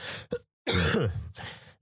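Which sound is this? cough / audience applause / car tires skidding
cough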